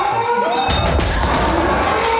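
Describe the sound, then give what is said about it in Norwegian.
A large animal, a cow, collapses to the ground with a single heavy, low thud, followed by a dull rumbling scuffle that carries on under a steady background hiss. “Ja, det skulle vi nok ikke ha sagt, for nå gikk kua i bakken.”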